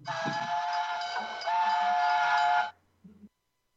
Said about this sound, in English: Oh, the train Is that a train?